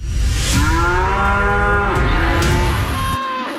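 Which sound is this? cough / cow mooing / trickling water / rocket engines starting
cow mooing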